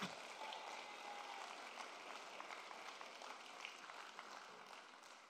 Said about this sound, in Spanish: ¿Sabes? El Señor me enseñó desde niña que no me puedo conformar con lo que veo, sino con lo que creo. Si lo vas a aplaudir, aplaude lo más fuerte.